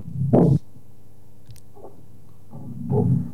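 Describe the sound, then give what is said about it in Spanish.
Two deep, booming strikes on a hand drum with a leather head, spaced a couple of seconds apart, with faint light taps in between and no talking. “Es el sonido, sonido muy grave.”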